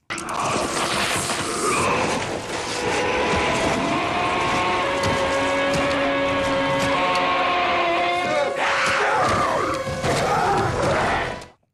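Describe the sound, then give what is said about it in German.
A loud, sustained monstrous scream from a creature in a horror film, with shrill, grinding overtones and a rough, gurgling texture, layered over heavy rumbling noise, lasting about ten seconds before cutting off abruptly. “und sich quasi dann auch vor allen anderen entwickelt und Arme bildet und schon viele verschiedene Leute tötet, da macht's einen Schrei.”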